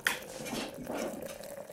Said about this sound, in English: I'm gonna pour myself some coffee.